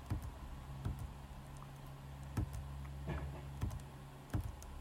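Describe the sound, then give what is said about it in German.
Scattered computer keyboard key presses, including Shift and S pressed to solo a VoiceOver track while editing audio, sharp clicks at irregular intervals over a steady low electrical hum, fairly quiet, with no talking. “stellen wir VoiceOver solo mit ähm, Umschalt und S, damit.”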